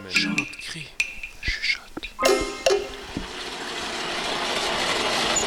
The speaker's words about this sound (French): On entend au loin le soufflet de la forge avec Flo, qui fabrique un coupe-chou et une binette